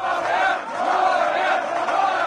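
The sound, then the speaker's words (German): A large crowd cheers the result of the 2016 Austrian presidential election, in which the FPÖ scored a spectacular success, in a sustained, loud roar of many voices, rising and falling slightly over a couple of seconds with no individual speech standing out. “Der Jubel ist groß, denn diese Wahl hat Geschichte geschrieben.”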